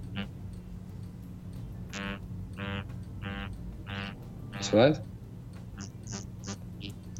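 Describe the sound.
A wristwatch, tapped twice on its locked face to check the time, vibrates with the microphone held against it in a coded pattern: four longer, evenly spaced buzzes for the tens followed by a few quick short ones for the units, with a brief spoken question in between.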